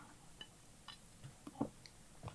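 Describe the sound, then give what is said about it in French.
A small sip from a drink: a few soft, wet mouth clicks and a quiet swallow in the middle, ending with a sharper little tap, all faint with no talking. “Donc, ok, on boit et on boit, comme je fais là, une petite gorgée.”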